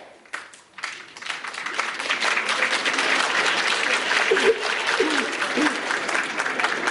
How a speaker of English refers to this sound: I don't know if we're clapping for the ball, for Kanievsky. I don't mind, I'll take it, it's okay.